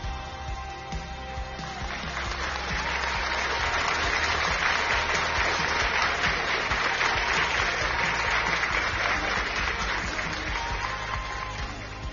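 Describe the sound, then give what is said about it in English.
Steady, dense applause from a crowd, many hands clapping in a continuous wash that swells after the first couple of seconds and holds at a strong level throughout. “If you are ready, I want you to clap. I want you to clap.”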